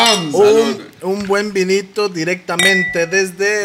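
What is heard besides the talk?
wine glasses clinking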